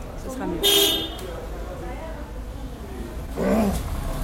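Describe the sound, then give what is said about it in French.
Busy crossroads traffic at Jogiwara Road and the Dalai Lama temple road rumbling steadily, with a short car horn honk near the start and another tonal honk toward the end, loud over the constant street noise. “Bah, on va, on va, écouter un petit peu ce carrefour très, très occupé avec plein, en, essayant de ne pas se faire écraser par les voitures.”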